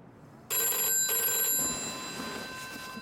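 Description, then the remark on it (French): A telephone rings loudly in a chic hotel room in Paris at night in 1964, a bright electronic trill starting abruptly with a brief break before ringing on and slowly easing in level. No voices are heard. “Dans le noir, il cherche le téléphone.”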